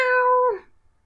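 A single cat meow, a sustained high, tonal cry that holds steady and then bends downward as it fades, heard alone with no talking.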